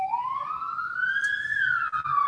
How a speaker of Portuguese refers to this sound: Olha aí, olha aí, não é moto não, agora é a sirene.